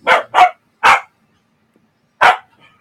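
A dog barks four times, two quick barks in a row, then a single bark, and after a pause one more, with no talking.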